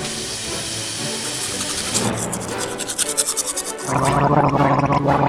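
A father brushes his teeth with hissy, scrubbing toothbrush strokes, settling into a quick rhythmic back-and-forth, then a loud, steady bubbling gargle to finish. No one speaks.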